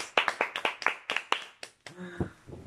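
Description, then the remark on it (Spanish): A single person, standing up, claps their hands about ten times in quick, slightly uneven succession, fairly loud, then a voice starts speaking as the clapping stops. “Sí, déjeme, me paro y aplaudo de pie.”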